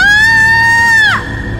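A woman lets out a loud, high-pitched frightened scream, holding it steadily for about a second before it breaks off, leaving quieter room noise behind.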